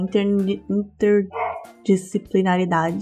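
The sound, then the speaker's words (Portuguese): A dog barks once or twice in the background, brief and fairly faint, while a person keeps talking over it. “Tem um cachorro latindo aqui.”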